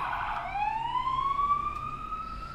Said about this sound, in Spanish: Ojalá que sea ambulancia y no patrulla persiguiendo.